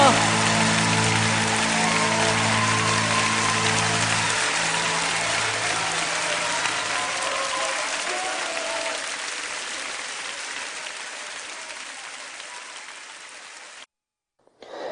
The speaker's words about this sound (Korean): 박수 올려드립니다.